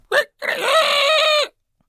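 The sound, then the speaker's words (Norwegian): A person imitates a rooster's crow: a short sharp syllable followed by a long, strained, wavering call lasting over a second, loud. “Det er hanegalt.”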